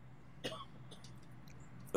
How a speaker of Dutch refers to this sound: En er is een hoest in het publiek.